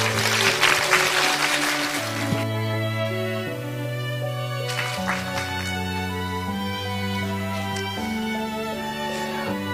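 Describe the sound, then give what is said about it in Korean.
An audience claps over steady instrumental background music, welcoming a speaker to a lecture on Jewish study methods for children. The applause is loudest in the first couple of seconds, then thins out, with a brief swell again midway while the music continues. “예, 한국인을 위한 유대인 공부법의 저자이기도 하신 이대희 원장님을 큰 박수로 맞아주시기 바랍니다.”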